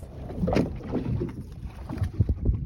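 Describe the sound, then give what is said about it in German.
Water splashes and sloshes beside a small boat as a pearl diver breaks the surface after about 10 minutes searching for oysters at about 5 metres depth, with a few sharper splashes near the end and a low rumble of wind underneath. “Dann taucht er wieder auf”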